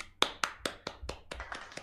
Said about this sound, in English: Yeah. And give me a raise because you know what? That clap was all I could give on a Friday.